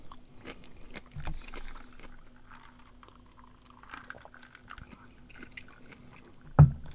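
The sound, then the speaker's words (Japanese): Quiet mouth sounds of someone chewing and sipping while eating and drinking during a microphone test, with soft wet clicks and small drips scattered throughout and one sharper thump near the end; no one speaks. “飲み食いしながらなのでマイクテストも含んでるんで、なんか咀嚼音とか苦手な人は、体質をお願いします。”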